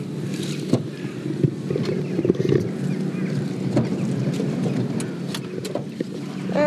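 Wet, squelchy footsteps of two people slog slowly through mud back to their car, irregular, with a steady rumble of wind and outdoor noise underneath and no one speaking.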